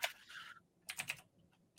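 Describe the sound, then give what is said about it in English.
Quick bursts of clacky mechanical keyboard typing in a few short clusters separated by brief pauses, with no voices. “Um, I like hearing your mechanical keyboard.”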